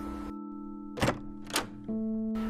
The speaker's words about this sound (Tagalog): Nagising naman ang binata sa katok at tumayo ito upang buksan ang pinto.